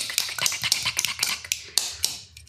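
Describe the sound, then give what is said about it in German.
A rapid series of light, sharp metallic taps, about a dozen in quick irregular rhythm, fairly quiet, as fingers tap the side and then the top of a drink can before it is opened. “Komm, und, wir äh, klopfen das ja. jetzt so,”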